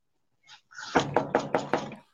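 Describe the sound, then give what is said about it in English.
Someone knocking on the door of her parents' house: a quick series of loud, sharp knocks, about five raps in a steady rhythm after a couple of softer taps, with nothing else heard. “And now she coming back mama, mama, y'all, mama, daddy, answer the door, please.”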